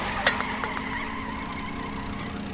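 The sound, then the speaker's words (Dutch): A heavy car engine hums steadily some distance away in the centre of Bergeijk, a low droning rumble that holds its level as it accelerates away after braking to turn right into the Domineestraat, with a brief sharp click near the start and no voices. “Dan horen we hem optrekken. Prachtig geluid.”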